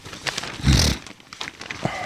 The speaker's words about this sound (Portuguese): Eu vou espirrar, desculpe. É a minha. Como chama isso? Rinite. É a minha rinite. Não consigo segurar.